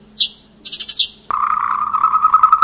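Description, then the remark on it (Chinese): Sparrow chirping: a few quick, high, bright chirps in a short burst, then a steady, lower, buzzing drone abruptly takes over and continues loudly. No one speaks. “像这样，红嘴黑飞，五色鸟，麻雀，”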